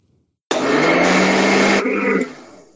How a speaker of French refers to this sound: jouez donc un peu de mixeur.